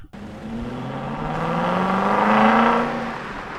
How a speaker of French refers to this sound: C'est un bruit de moteur, non C'est un bruit de moteur, ouais.